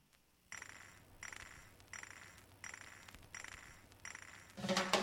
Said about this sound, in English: But they're doing that like thing from the Warriors where they're clinking the bottles together with the fingers.